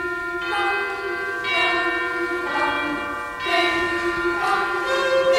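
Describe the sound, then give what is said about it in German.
A boys' choir imitates church bells ringing in the fifth movement of a symphony, with steady, evenly spaced chime-like sung tones repeating about once a second, each swelling and ringing on, clear. “Die Besetzung sieht sogar einen Knabenchor vor. Der imitiert im fünften Satz ein Glockenläuten.”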